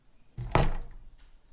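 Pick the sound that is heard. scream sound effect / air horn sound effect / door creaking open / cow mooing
door creaking open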